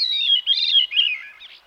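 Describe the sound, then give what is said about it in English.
A veery, a tawny thrush, sings its whirling, flute-like song through the trees in its summer breeding season in the northern United States or southern Canada, spiraling downward in a single clear phrase of overlapping, ringing notes, fairly loud, with no voices present, fading out at the end. “The whirling, flute like song of the veery rings through the trees of the northern United States and southern Canada during its summer breeding season.”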